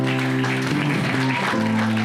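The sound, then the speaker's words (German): A church crowd claps steadily for the whole stretch as two people are invited to the front, a dense, even patter of many hands at constant loudness, with a sustained low tonal hum running underneath. “kommt doch bitte na, mal nach vorne und lassen Sie nochmal einen großen Applaus geben.”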